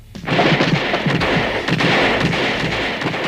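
A dense, sustained roar of heavy gunfire from troops firing at will at the escaping robot Number Five, with overlapping booms and crackling blasts, loud and continuous throughout, no voices.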